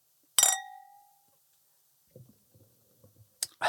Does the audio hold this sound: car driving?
no